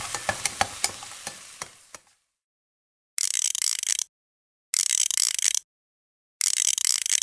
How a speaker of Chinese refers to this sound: This is the sound of clockwork, 发条. But is it from, is it really from a clock? Or a toy? Or a machine? Or just a tool you can find in a toolbox?